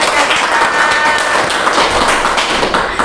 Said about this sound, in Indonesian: Tepuk tangan dong teman-teman.